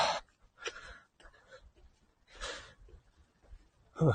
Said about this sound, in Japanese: 今、神社の坂を登っているのでちょっとね、息は切れておりますが。